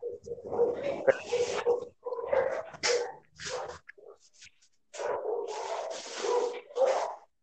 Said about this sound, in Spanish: Por ahí escuchamos el desmadre que tiene Vic en su casa con sus, sus perros. No, son de la calle